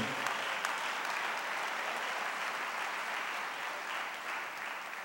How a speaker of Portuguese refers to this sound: Então aplauda o Senhor dessa nação.